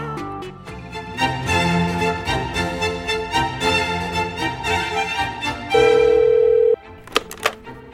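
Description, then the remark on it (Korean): A phone ringing effect on the Korean radio show Gayo Gwangjang: a steady electronic telephone tone sounds for about a second over a music bed, followed by a few short, sharp clicks. No one speaks. “무엇이든 진심을 다해 그리고 정성을 다해 들어드리는 가광 주민센터장 이기광 전화 받았습니다.”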